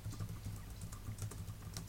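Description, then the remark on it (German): Steady typing on a computer keyboard, a quick run of soft clicking keystrokes in an irregular rhythm, fairly quiet, with a low hum underneath and no talking. “Und irgendeiner von euch ist gerade nebenbei am, am Tippen.”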